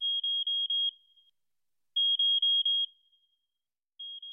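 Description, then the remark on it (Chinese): A smartwatch alarm beeps as the wearer exits a building, in bursts of four quick, high-pitched electronic tones, each burst followed by a short pause before the pattern repeats. No one speaks. “出了那栋楼以后，他的智能手表发出了警报声。”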